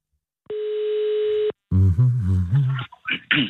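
A single steady telephone ringing tone of a call being placed sounds for about a second, a clear, slightly buzzy pitch heard over the line, then cuts off and is followed by a muffled, voice-like sound.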